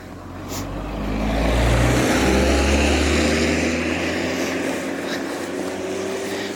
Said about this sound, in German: Und kaum fange ich das Reden an, kommt auch schon ein Auto vorbei.